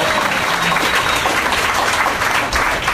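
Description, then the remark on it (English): Loud, sustained applause from the audience of a live show welcoming two new guests fills all three seconds, a dense crackle of many hands clapping at once with steady intensity and no voices standing out. “And uh, they're, yeah, you can applaud yeah, them.”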